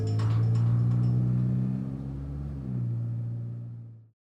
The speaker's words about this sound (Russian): Он открыл заднюю дверь и запрыгнул в салон авто. Рыкнул двигатель, и машина тронулась в путь.